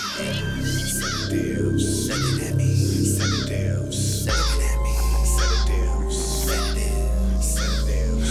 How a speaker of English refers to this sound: Crows fly by my window, slow. Headed that way, but looking at me though.